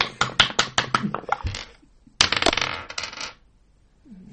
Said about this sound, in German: Achtung, ich würfel. okay. Das war ein Würfel.